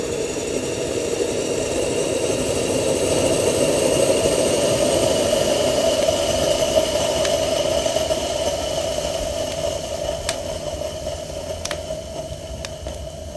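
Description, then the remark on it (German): A stovetop moka pot hisses steadily and loudly as heated water is forced up through the coffee and shoots out the top: a rushing, whistling stream with a faint tonal whine, then a few sharp sputtering pops near the end. “Und wenn dann das Wasser so erhitzt ist, dass es eben durch den Kaffee geht und oben rausschießt, das äh, mag ich auch ganz gerne.”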